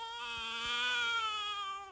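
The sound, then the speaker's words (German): An infant wails in one long, steady, high-pitched cry that holds for about two seconds before breaking off, loud, with no other voices, as a soldier takes her out of a room. “Sie fängt an zu weinen.”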